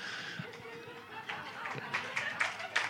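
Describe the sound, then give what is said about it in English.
An audience in North Carolina claps unevenly, with scattered sharp claps over a crowd murmur. The clapping grows denser and louder toward the end. “Well, North Carolina likes to clap.”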